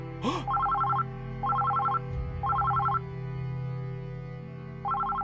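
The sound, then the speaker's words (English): An office telephone rings in repeated bursts of electronic trilling, each lasting about a second with short pauses between, loud over a low steady hum, with a brief thump near the start. “The ringing of your office phone cuts through your concentration and startles you.”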